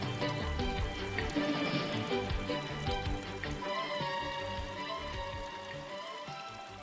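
Water overflows from a plugged bathtub and gushes and splashes onto the bathroom floor in a steady, dense rush, with crackly spattering mixed through it. It holds at a fairly even level for several seconds, with no voices.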